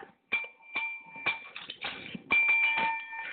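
bell being rung

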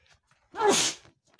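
sneeze

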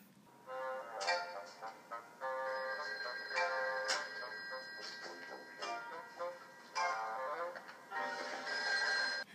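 telephone bell ringing

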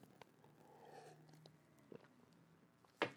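sipping water

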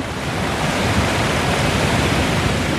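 flowing river water

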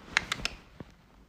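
cat scratching

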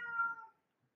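cat meowing

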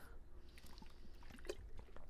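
drinking water

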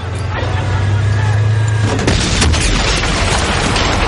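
tank cannon firing

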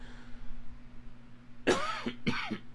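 allergy cough

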